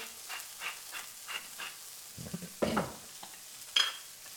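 Food sizzles steadily in a pan that is not too hot as salt and pepper are added, while a utensil scrapes and stirs in short strokes, with a couple of louder clatters near the end. Clear, no voices.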